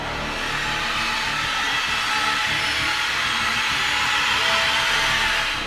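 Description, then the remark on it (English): A scratch violin played as a dense, rustling wash of harsh bow noise representing bats flying all around, used as the sound for Batman in a score. It holds steady and fairly loud for several seconds, with no talking. “For Batman, for example, I use a scratch violin, uh, which represents some bats noise flying all around.”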